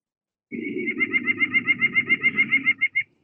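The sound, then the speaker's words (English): A nuthatch sings a rapid series of about fifteen nasal, buzzy notes with rich harmonics and loud amplitude modulation, evenly pulsed, after a brief sustained start, ending abruptly. “And in fact, that amplitude modulation is really important for the nuthatch, this.”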